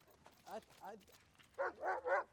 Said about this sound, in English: Here's our dogs again.